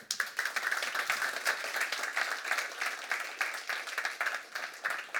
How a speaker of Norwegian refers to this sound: Jan, en stor applaus.